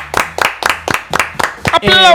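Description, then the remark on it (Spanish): Steady, rhythmic clapping, about seven sharp claps in a quick even beat, ending as a voice begins to speak over the last of them. “aplaudan, eh, no me, dejen de aplaudir.”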